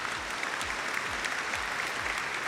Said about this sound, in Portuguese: Palmas para ele